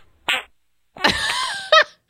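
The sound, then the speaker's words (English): A short fart sound effect from a soundboard plays twice: a brief burst, a pause, then a longer rasping, sputtering blast with a wobbly tonal buzz that ends in a quick flutter. Loud, with no talking. “so we need a fart soundboard for that.”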